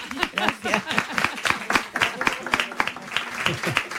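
A studio audience breaks into steady applause, many hands clapping densely for the full few seconds, with a few voices mixed in underneath.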